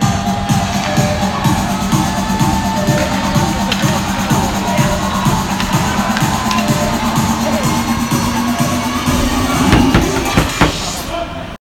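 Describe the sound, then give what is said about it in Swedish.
A loud, dense crowd at an ice hockey game cheering on HHC roars and cheers continuously, with rhythmic chanting, clapping and scattered shouts filling the arena throughout. “att heja HHC!”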